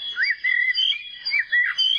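Young birds screech insistently from their nest in a hedge, high, harsh calls in repeated bursts that overlap and waver in pitch, loud and continuous with no talking.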